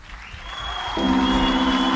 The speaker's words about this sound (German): Macht Applaus für euch selbst. Applaus für euch selbst.